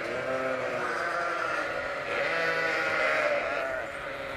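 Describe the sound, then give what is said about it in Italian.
Sheep bleating continuously, a sustained wavering baa that swells louder midway before easing off, heard close and alone without any talking. “Ma Carlo è rimasto a Buckingham Palace a stringere i denti, ad allevare pecore.”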